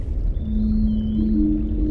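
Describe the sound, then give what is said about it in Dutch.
A long, steady whale call hums over a deep underwater rumble, its tone stepping slightly higher partway through, with a faint thin whistle drifting above it. “We halen scholen vissen in, walvissen zelfs, en navigeren door plastic soep.”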